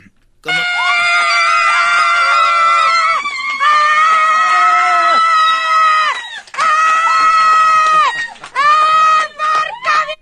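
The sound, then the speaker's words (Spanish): Laura Pausini screams loudly and ecstatically after winning a Golden Globe, in long, high-pitched bursts, nearly continuous for about ten seconds with a few brief breaths between, piercing with no other sounds around. “Laura Pausini ganó el Globo de Oro, pero ustedes escuchen cómo gritó Laura Pausini cuando ganó.”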